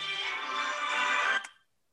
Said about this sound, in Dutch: Excuses, mijn telefoon ging even tussendoor. die zal ik sowieso even op stil zetten.